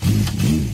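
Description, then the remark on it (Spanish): A 30-horsepower motorcycle engine drones loudly for a brief moment, its low tone rising and falling as it revs along the motorway. “Cuando una moto de 30 caballos va por la autopista suena así.”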